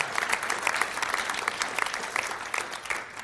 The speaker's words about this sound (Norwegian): Ja, du kan gi en liten applaus på det.